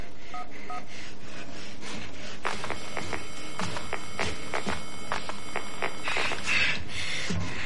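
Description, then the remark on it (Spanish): A mobile phone being dialed in a person's room: a quick, uneven run of about a dozen short electronic keypad beeps at varied mid-high pitches over a faint background hiss, with no one speaking. “Coge el móvil. Marca un número.”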